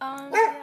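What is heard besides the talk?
dog barking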